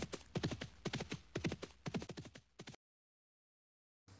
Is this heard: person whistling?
no